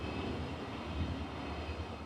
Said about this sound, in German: Äh, das war der erste Zug. Das war die Rhein-Ruhr-Bahn. Das ist der ähm, Regionalexpress, der von Xanten nach Duisburg fährt, ne? Richtig, So ist es, von Xanten nach Duisburg.